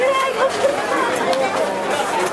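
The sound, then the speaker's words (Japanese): A steady babble of many overlapping voices from a crowd at an outdoor event near Suitengū subway station in Tokyo, continuous and moderately loud, with no single voice standing out from the general hubbub. “水天宮っていうんですか水天宮って読むんですかその駅の地下鉄の駅の近くなんですけどもなんかイベントやってまして”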